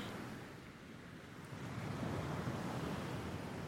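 Sea waves wash in steadily, a broad rushing surf that swells louder partway through and holds there, with no voices, just the continuous roar of water.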